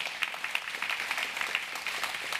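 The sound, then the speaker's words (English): A church audience at Bridge Church claps steadily to welcome a board member being introduced, a dense, even patter of many hands lasting the whole stretch with no voices standing out, at a moderate, unchanging level. “Can you all bless Rick with a great hand clap?”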